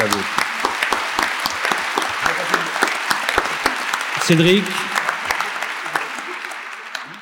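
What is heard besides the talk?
audience applause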